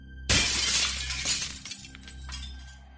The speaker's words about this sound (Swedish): Där fanns det ju speglar. Jag har för mig att det fanns två till och med. Ja, två stycken. De sitter ju mitt emot varandra. På vardera sidan av rummet liksom. Och du går fram och krossar den ena.